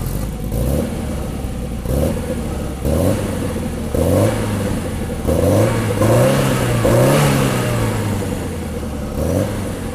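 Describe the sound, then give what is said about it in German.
A Peugeot 205 Turbo 16 rally car engine revs hard again and again, each burst climbing in pitch before dropping back, loud with no voices. “Der Motor. Also als erstes finde ich der Sound. Ja. Also habt ihr ja schon gehört, können wir gerne nochmal einspielen.”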